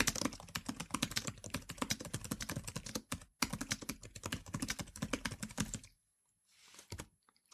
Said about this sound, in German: aber natürlich, weil es nicht direkt davor ist, sondern ein Stück von unten kommt, sind die Geräusche nicht ganz so stark. Aber die Tastatur lässt sich eben wirklich sehr flüssig schreiben.